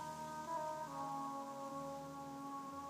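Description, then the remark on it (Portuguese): Wind outside makes a soft, steady whistling drone with a few sustained tones that shift pitch slightly partway through. It is fairly faint and even, with no one talking. “Olha o som do vento.”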